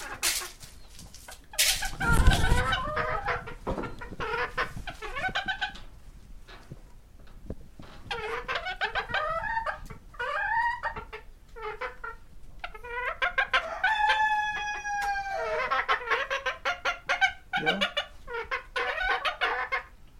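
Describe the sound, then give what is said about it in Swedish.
Small Modern English Game hens clucking as someone comes in to meet them, in a busy, overlapping chatter, with bursts of sharp, repeated clucks and a few higher, drawn-out calls standing out over a steady murmur of the flock. “Rasspecial Modern Engelsk Stridshöna”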